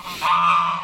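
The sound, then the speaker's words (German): A single loud, nasal goose honk held for nearly a second, with no talking, its harsh tone swelling slightly before fading. “Drei Länder, drei Sender, aber ein Podcast, der heißt Mensch Nachbar und heute geht es den Gänsen an den Kragen.”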